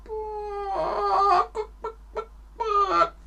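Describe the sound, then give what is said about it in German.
A hen clucks and cackles: a drawn-out, squawking call, three short sharp clucks, then another rising squawk, with no one speaking. “Ja, das Huhn legt Eier.”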